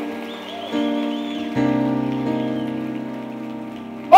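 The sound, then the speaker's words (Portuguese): An audience applauds the Lord in a dense, steady wash of clapping that swells in two steps and stays loud, over sustained musical chords playing underneath. “Pode aplaudir o Senhor, pode aplaudir.”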